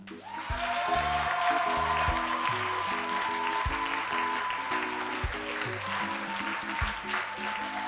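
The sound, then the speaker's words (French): A church audience claps steadily and loudly to acclaim God, over sustained keyboard chords and a deep bass line, the dense patter of hands continuing throughout without any speech. “Regarde, pendant que tu applaudis, c'est comme si tu es en train de gifler les démons.”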